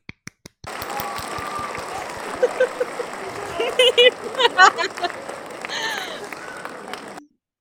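Steady applause from a group, a dense patter of many hands clapping at a fairly even level for several seconds, with a few sharper whoops or cheers rising above it before it cuts off.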